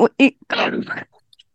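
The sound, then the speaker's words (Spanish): A voice mimics a straining grunt, fairly loud: two short, tight voiced bursts followed by a longer, rough, effortful push of breath. “Como haciendo fuerza”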